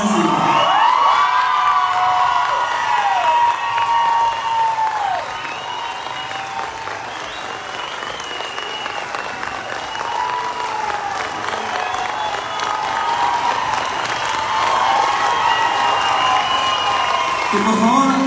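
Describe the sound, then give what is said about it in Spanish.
Sustained, loud audience applause with cheering and shouted voices, a dense crowd clapping steadily for about eighteen seconds, with high whoops and calls rising and falling over the clapping. “Yo les voy a pedir algo en memoria de mi hija María Fernanda, que le demos un gran aplauso para que le diga que ya”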